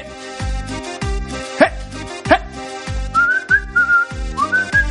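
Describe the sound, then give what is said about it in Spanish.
A fantasy TV theme tune, whistled clearly, rides over a pulsing, repeated low string rhythm, with the whistled phrases rising and gliding during the second half. “tenemos una especial de Game of Thrones así de fondo. Escuchen ustedes también.”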